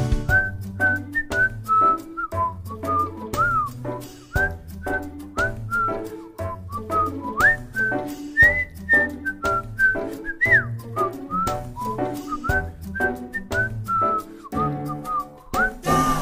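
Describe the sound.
A bright whistled melody carries a cheerful tune over steady musical backing, with a bouncing bass line and regular percussive beats; the whistle slides and wavers between notes throughout.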